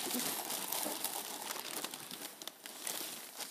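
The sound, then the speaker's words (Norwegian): Continuous crinkling and rustling of a gift's paper packaging being handled and torn open, with irregular crackly bursts throughout and no voices. “Ja, Den kan du få åpne sa du at vi ikke skulle bruke papirlill, for ja, da bråka det.”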